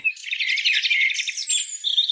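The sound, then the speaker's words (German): Several birds chirp and twitter continuously in a dense, high-pitched chorus, with quick overlapping calls and a few longer whistled notes, steady throughout with no voices. “Los mal, hörst du, wie es zwitschert?”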